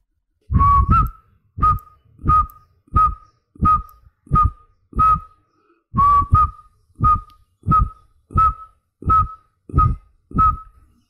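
A whistled tune of short, clipped notes in a steady rhythm, each note landing on a deep thump, played through as two matching phrases with no talking; the opening of a song from the Hindi film Rangeela.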